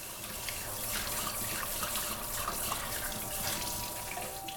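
Steady running tap water splashes into a sink for the whole stretch, fairly loud, with faint clinks and rubbing of dishes being washed with dish detergent beneath the hiss. No one speaks.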